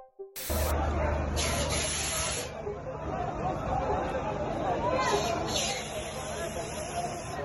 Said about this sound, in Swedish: Ja, så här lät det under våldsamheterna i Iraks huvudstad under natten till torsdag. Demonstranterna uppges ha bränt flaggor, viftat med Koranen och klättrat upp på den svenska ambassadens balkonger.